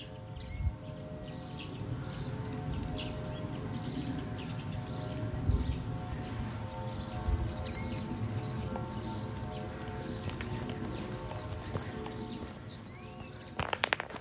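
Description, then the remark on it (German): A European serin sings a fast, high-pitched jingling trill, running almost continuously from start to finish over a steady low background rumble. No one speaks. “Da hört man ein Gierlitz, das ist eine Art, die in den letzten Jahren weit über 80 Prozent verloren hat an äh, Bestand.”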